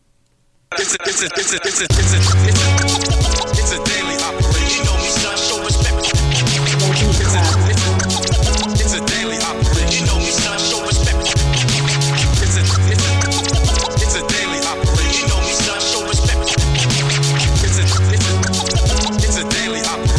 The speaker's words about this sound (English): …, y'all submitted a beat called ….